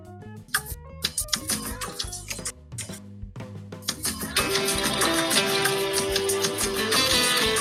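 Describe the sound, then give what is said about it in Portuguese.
A late-1990s to early-2000s pop song plays loudly for a guessing game, with a steady beat and layered synths, starting with punchy rhythmic hits and swelling into a fuller, denser arrangement with a sustained melodic line; no one talks over it. “Nossa, é muito anos 90 essa música, final dos anos 90, começo dos 2000.”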